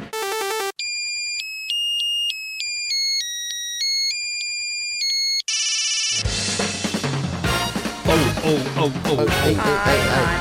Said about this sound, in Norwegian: Plass nummer én. Finn en ny ringetone til mobilen din!